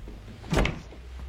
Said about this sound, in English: close the door.